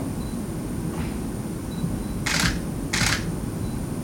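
Two crisp camera shutter clicks during a portrait photo shoot, about half a second apart, over a steady low background hum, with a fainter click earlier; clear, no voices.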